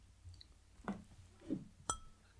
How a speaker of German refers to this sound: Prost. ähm, und äh, zweitens Prost, würde ich sagen, wenn ich, Stößchen.